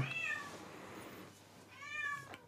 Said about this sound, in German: Miau. Miau. Miau. Wow. Was ist denn mit dir?